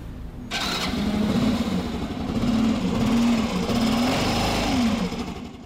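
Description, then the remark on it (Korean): A postal delivery motorcycle of the kind used by mail carriers of the Wonju post office sputters to life with a sharp start, then settles into a steady, throbbing idle with slight revving swells, fairly loud throughout, with no voices. “우편 배달은 대개 오토바이를 이용하는데요.”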